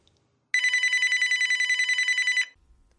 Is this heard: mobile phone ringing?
yes